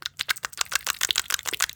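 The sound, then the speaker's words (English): A rapid run of sharp, wet smacking pops made by pinching both cheeks, pulling them apart and bringing them together quickly, about a dozen quick clicks in a loose rhythm with no talking. “Is you you pinch both sides of your cheeks and you cheeks. pull them apart and b- bring them together quickly.”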